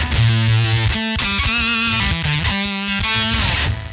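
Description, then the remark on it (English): A loud, heavily distorted fuzz guitar tone from a fuzz pedal, with a dense, buzzy, compressed edge and a lot of high frequencies, played in sustained notes that cut off abruptly into brief gated silences. No voices. “And you're just cuz there's a lot of high frequencies in this like like slammed gated sound.”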